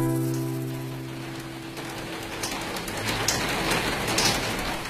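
Steady rain hisses and patters, swelling louder over the few seconds with scattered sharper drops, while a sustained low musical tone fades away at the start. No one speaks.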